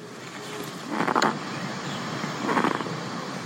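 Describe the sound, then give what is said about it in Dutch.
Two short, rough, guttural northern bald ibis calls played from an educational display, about a second and a half apart, heard moderately loud over a steady background hiss. “Als je bijvoorbeeld zegt, ik vind jou aardig, dan klinkt het zo”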